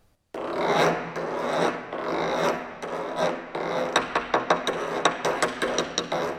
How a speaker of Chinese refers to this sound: 比如说，为了表现老虎在磨牙，我用鼓槌来刮这个大鼓的炮顶，你像这样